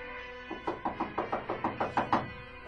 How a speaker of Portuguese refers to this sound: Também acordado, pensava muito nela com saudades, mas os filhos começaram a bater na porta de seu quarto.